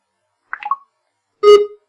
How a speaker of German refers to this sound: Jetzt hören wir, dass das Scannen ähm, aktiv ist. Es gibt immer dieses Ticken.